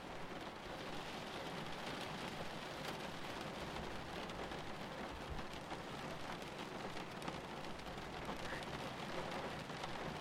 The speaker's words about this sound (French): Pendant quelques minutes, vous n'entendez plus que la pluie et votre respiration. Mélodie discrète régulière.